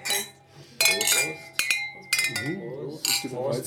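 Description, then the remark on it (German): Several sharp glass clinks ring out as glasses are tapped together in a toast, used as a synchronisation sound, their bright tones lingering briefly, with people talking and murmuring underneath. “Und wir haben ja unser eigenes oh. Synchronisierungsgeräusch. Prost, Prost.”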